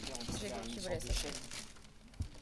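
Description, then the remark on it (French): Dry crinkling of plastic packaging as macarons are taken out, continuous for a couple of seconds with a few sharper crackles, while a voice murmurs faintly underneath. “On prépare les petits macarons.”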